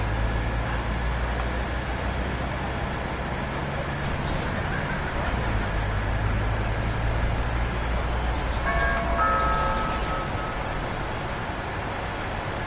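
Steady engine and rolling rumble inside a moving public transport vehicle after passengers have boarded, with a low droning hum throughout and a brief high tonal whine or squeal rising near the end; no one speaks.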